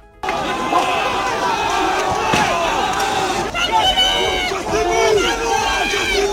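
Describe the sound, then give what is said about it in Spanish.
A large street crowd protesting the pension reform in France roars continuously, many voices shouting and chanting together in a dense, loud wall of sound, with occasional sharper yells and bangs cutting through. “Son los sonidos que dejan las protestas masivas contra la reforma de las pensiones en Francia”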